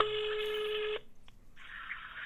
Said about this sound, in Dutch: Ik probeer Maarten Woerkom van te bellen op het mobielnummer